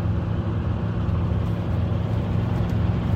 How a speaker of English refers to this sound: so I literally just have my phone propped on the uh, on the damn dash here while I'm driving up